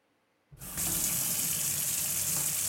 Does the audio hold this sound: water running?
yes